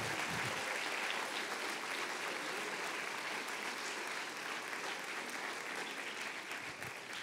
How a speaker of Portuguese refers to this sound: Você pode dar um glória a Deus aonde você está? E se vai aplaudir, aplauda forte.